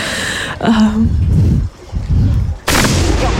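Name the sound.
ceremonial cannon salute shot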